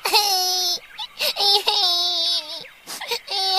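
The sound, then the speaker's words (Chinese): A baby cries in three long, loud wails separated by brief gasping pauses, each cry high-pitched and strained with a wavering tone. No one talks over it. “好像是小宝宝，他在哭啊！”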